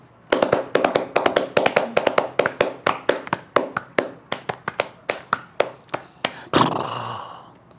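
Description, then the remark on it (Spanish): A hand-tapped imitation of a horse galloping from afar over cobblestones as it arrives at a house: a quick, uneven clatter of sharp knocks in galloping groupings, slowing toward the end and finishing with a louder, breathy crash. No one speaks. “Por ejemplo, un caballo corriendo en la lejanía viene llegando a, la casa que está un poco empedrada. Te lo voy a hacer, mira.”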